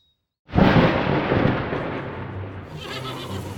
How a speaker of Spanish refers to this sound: Según el propio Lutero, todo cambió cerca de una población llamada Stotterheim, donde experimentó una tormenta tan violenta que sintió un pánico horrendo